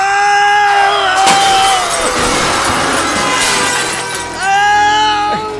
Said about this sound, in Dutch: Oh mijn god, ik, klap, ik zie daar een geestelijk gehandicapte vol zijn auto boren in een van de lichamelijk gehandicapten. Dat is een man.